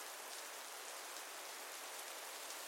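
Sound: rain falling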